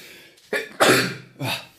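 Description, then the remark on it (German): A forceful sneeze: a short sharp intake and burst, then the main explosive blast, followed by a quicker smaller sneeze, with no talking. “Gesundheit.”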